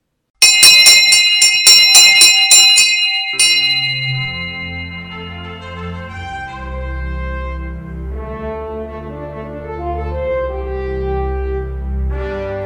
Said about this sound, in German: Der Autor steckte seine Brille in die Jacke und betrat mit seinem Hund unverzüglich die Buchhandlung, setzte dabei eine scheppernde Türglocke in Gang, die ihn erschrocken zusammenzucken ließ.